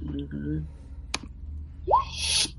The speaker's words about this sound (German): Moment, ich muss jetzt mal würfeln, was du da noch hörst. Ähm, Moment, das war jetzt der falsche. Wir brauchen einen W4.